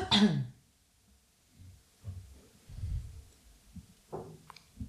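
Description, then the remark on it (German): A person with a lingering cough clears their throat: a sharp, harsh throat clearing bursts out at the start, followed by quieter low rumbling throat noises and a brief cough-like catch near the end, with no speech. “du rülpst und hustest die ganze Zeit eigentlich.”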